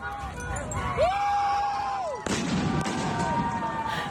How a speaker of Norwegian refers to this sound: Unge demonstranter roper idet de setter fyr på Ayatollah Khomeinis hjem. Ja, du hørte riktig. Barndomshjemmet og museet for å hedre lederen av den iranske revolusjonen i 1979 ble ramponert og vandalisert sist uke.